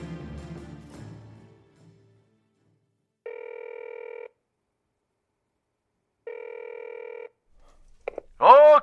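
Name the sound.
telephone ringing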